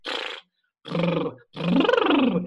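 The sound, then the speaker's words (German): A buzzy voiced lip trill, a lip-flutter exercise, in three bursts: two short ones, then a longer one that slides up in pitch and back down, with no talking. “Oder Lippenflattern wird auch gern genommen, wenn du wie ein Baby”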